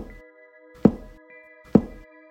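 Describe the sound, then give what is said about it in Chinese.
Regular banging on the left-hand wall from the last room, starting at about two in the morning and going on until about five: dull, heavy thumps at an even pace, just under a second apart, over a faint, steady tonal hum. “这时，我们突然听见左边的墙壁，也就是最后一间房子里面，传出很规律的“砰、砰、砰”的声音。”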